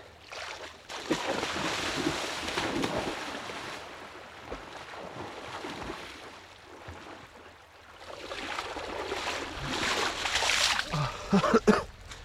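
Loud splashing and churning water in two long surges as a person plunges into cold water for a swim and thrashes about, with a brief lull between the bursts.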